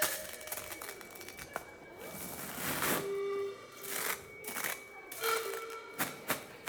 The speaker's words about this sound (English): we do footsteps with a with a boot in a packet of cornflakes.